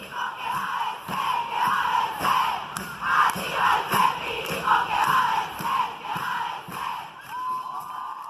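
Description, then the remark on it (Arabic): A large crowd of protesters in Buenos Aires, Argentina, chants in unison with a steady, rhythmic cadence. They demand passage of the abortion law, an end to police violence, and an end to discrimination and racism against minorities. Many voices rise and fall together in repeated phrases, loud, filling the whole stretch without pause. “تظاهر في أنحاء الأرجنتين خصوصا في قلب العاصمة بوينوس آيرس للمطالبة بإقرار القانون إضافة لمطالب أخرى منها وقف عنف الشرطة ووقف التمييز والعنصرية ضد الأقليات”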